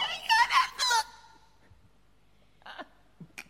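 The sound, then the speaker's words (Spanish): Loud, ragged gasping breaths up close, a quick cluster of panting pants, a pause, then a few more sharp, breathy inhales and exhales, like someone hyperventilating. “… está respirando muy fuerte. pasa? Hiperventilado.”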